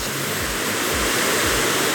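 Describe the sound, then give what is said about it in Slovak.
The Lučanský waterfall roars, its steady, dense rush of white noise filling the whole range at a constant loudness, with faint low rumbling pulses underneath. No one speaks. “Katka, ako sa volá tento vyparádený vodopád?”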